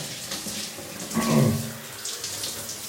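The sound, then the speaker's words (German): Water runs steadily from a tap with a broad hiss as a person washes their hair while trying to keep a wristwatch dry, swelling briefly into a louder splashing gush midway as it hits hair and surface, then settling back to a constant flow. “Ein bisschen Wasser kommt natürlich ran, aber na gut.”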